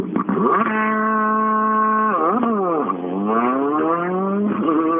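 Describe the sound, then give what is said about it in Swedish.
A rally car driven by Sandberg roars off the start line on asphalt, engine revving hard through rising gear changes with dips between shifts, loud, no voices over it. “Ja, det är fränt att få vara med i starten. Just det här att få det här på asfalt när det är ett sånt jäkla hugg under”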